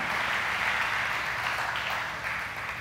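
A church crowd applauds the sound engineer, a dense wash of many hands clapping at once with no voices, holding strong for a few seconds before easing off slightly at the end.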